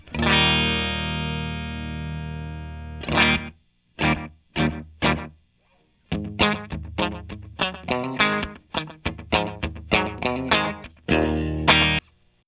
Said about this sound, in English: Interesting. Right, right pretty good slap back. Yeah. Interesting. Yeah. Yep. It has has some some some of that feel right away. Mm-hmm. It's nice.